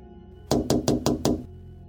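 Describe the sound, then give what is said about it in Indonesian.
Five quick, even knocks on a window, fairly loud, rapping in a steady rhythm over about a second before falling silent against a quiet background; the second round of knocking, ten minutes after the first. “selang 10 menit dari ketokan pertama ketokan kedua nongol kali ini ada suaranya”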